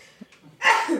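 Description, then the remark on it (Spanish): A single sharp sneeze bursts out after a brief quiet intake of breath, loud and explosive, with no talking around it. “Salud.”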